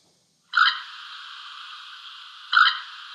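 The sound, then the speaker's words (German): A small pond bird gives a rolling, trilled call, a sound often heard at ponds rich in vegetation. The call runs on steadily for several seconds, swelling louder at the start and again near the end. It is clear, with no talking. “Und bevor wir verraten, wie immer, welche Art das ist, spielen wir mal kurz das typische rollende, den rollenden Gesang, den rollenden Ruf, ich weiß es gar nicht, dieser Art ein.”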